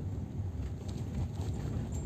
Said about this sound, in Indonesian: suara-suara yang lain masih kedengaran banget ini di mobil aku rekamnya sekarang di mobil mungkin kerasa sih apa kedengeran lah kalau aku rekam di mobil nih ya